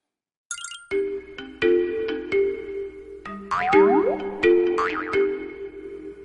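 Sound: mobile phone ringtone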